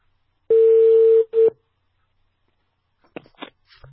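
A telephone line tone as a radio reporter phones the local village Party secretary: one steady, mid-pitched hum lasting under a second, then a brief second burst, followed by silence and a few soft clicks and rustles.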